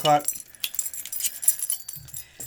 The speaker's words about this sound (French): Là, on entend les, les oh. clés. Ça oh. veut dire que c'est temps. It's beer o'clock.